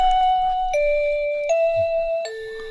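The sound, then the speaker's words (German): An electronic wireless doorbell chime, one of 32 selectable melodies, plays a short melody of four sustained tones, each stepping to a new pitch about every three-quarters of a second, ringing steadily with no talking. “Wenn Ihnen das nicht gefällt, Sie können insgesamt 32 unterschiedliche Melodien wählen.”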